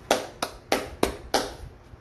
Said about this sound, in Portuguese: palmas para todos vocês.